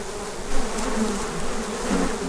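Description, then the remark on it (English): A steady, droning buzz of many flies throughout the second floor of a house, constant and fairly loud with slight swells in intensity. No voices are heard. “Paramount rents the house during the off season for the flies, saves on closing costs, and they emit this peaceful flying noise throughout the second floor”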